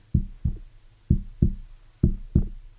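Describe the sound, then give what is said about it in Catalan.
Dull finger taps in three quick pairs, localized tapping like knocking on a door as part of an FT tapping routine, each double tap separated by a short pause. The taps are low and muffled, with no talking. “El recorregut de l'FT contempla el toc localitzat, com si piquéssim a una porta, seria algo així com”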